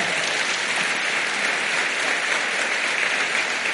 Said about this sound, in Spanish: Dele palmas al Señor.